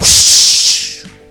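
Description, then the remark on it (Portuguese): A voice imitates a lightning and thunder strike with a single loud, breathy 'shhh' burst lasting about a second, then fading out. “Isso é um barulho de que que é isso? raio. De trovão.”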